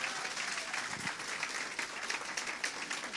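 A round of applause from a church audience welcoming a visiting speaker from Lurgan, dense steady clapping that fills the whole clip at an even level, with no single claps standing out.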